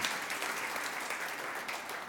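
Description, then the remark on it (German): An audience applauds people who work as volunteers in the audience, in a steady, dense wash of clapping that holds at an even, fairly loud level throughout, with no voices standing out above it. “Wow, Lass uns einen Applaus geben für all diese Leute.”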